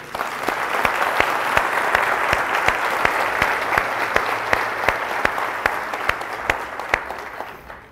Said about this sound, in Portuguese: Vamos dar um aplauso a ele.